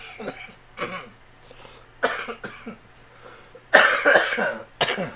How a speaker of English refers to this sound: I tried to recover from my coughing fit in the middle of that, but I started coughing more because that was a good joke.